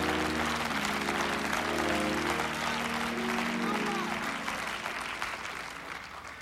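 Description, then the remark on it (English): An audience at a church sermon breaks into steady, dense applause that holds for several seconds before gradually tapering off, with low sustained tones and murmuring voices underneath. “Oh, I ain't getting no claps right now.”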